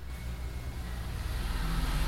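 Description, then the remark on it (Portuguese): A motorcycle engine rumbles, a low steady drone that swells gradually louder over two seconds as it passes, with no voices over it. “Por que que, por que, que nós somos assim é, visivelmente interrompidos por barulho de moto?”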